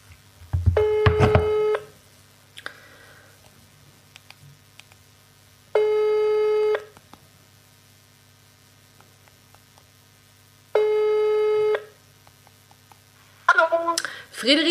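Ringback tone of an outgoing phone call: three buzzy, one-second tones about five seconds apart over a steady low hum, followed by a brief clatter as the line seems to pick up.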